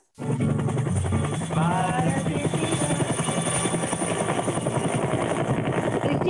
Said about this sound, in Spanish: Hola. Estamos, escucho el, helicóptero.